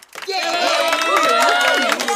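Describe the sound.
A roomful of people breaks into brisk, continuous clapping, with excited young voices cheering and calling out over it; the burst starts abruptly and stays loud and dense throughout.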